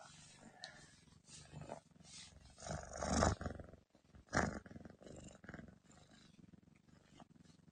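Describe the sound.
A cat purring close to the microphone, a steady low rumbling that swells and fades over several seconds, with a couple of louder rough bursts and a faint voice murmuring briefly.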